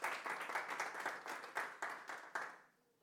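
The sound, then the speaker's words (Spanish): A crowd of people applauding together for the Lord, a steady burst of dense, rhythmic clapping that fills the space for a few seconds, then quickly fades out into near silence. “Un fuerte aplauso para nuestro Señor y vamos a orar.”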